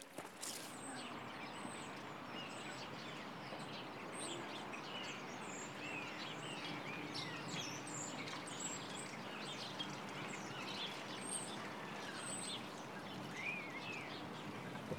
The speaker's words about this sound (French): Qu'est-ce que c'était ça C'était des oiseaux qui il faisait du bruit. Et tu sais quels oiseaux c'est Non. Je crois que ce sont des étourneaux, des oiseaux qui préparent leur voyage pour l'Afrique.